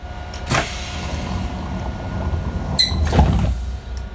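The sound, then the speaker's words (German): The compressed-air door of a VT2E railcar closes: a sharp hiss of air followed by a solid thud and rumble, over a steady low engine drone, with no voices. “Wir machen die Tür auf und wieder zu.”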